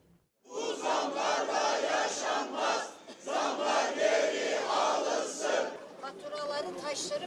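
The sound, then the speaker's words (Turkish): A crowd of workers, retirees, health workers and housewives chants together loudly in rhythmic bursts, many voices rising and falling in unison with brief pauses between phrases, at a protest in the capital where bills are burned and stones boiled in empty pots. “Boş tencerede fatura yakıp taş kaynatarak ses yükseltti başkentte.”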